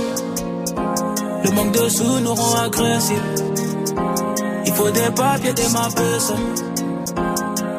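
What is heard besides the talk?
french rap song playing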